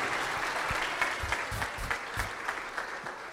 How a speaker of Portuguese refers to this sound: Então, vamos recebê-lo com alegria, vamos aplaudir o Senhor bem forte, em nome de Jesus.